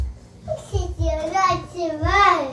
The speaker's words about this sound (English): Y'all, we have a visitor. My nephew's in here. What you doing, pumpkin?